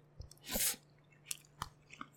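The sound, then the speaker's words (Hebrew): Chewing of rice at about a quarter past midnight: wet mouth clicks and smacks at an irregular pace, with one louder, crunchier burst near the start, heard alone with no talking. “והיום אנחנו אוכלים אורז ב-12 בלילה 12, ורבע”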